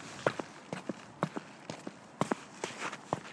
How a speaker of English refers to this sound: Here's snow. Here's what snow sounds like. Come on, it's packed.